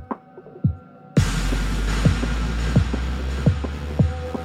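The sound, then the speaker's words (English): Muffled, bass-heavy drum thumps pulse at a steady beat, dull and distant as if through a wall, with a low droning hum swelling in partway through and holding underneath. “Sounds like some drums in another room.”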